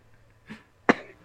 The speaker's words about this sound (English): Oh no, we haven't had a coughing fit in a while. I think we're overdue.